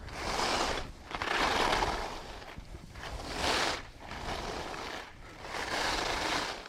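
Skis scraping across hard, icy snow in a steady rhythm of broad hissing swooshes, each turn rising and fading, about four carves with no talking.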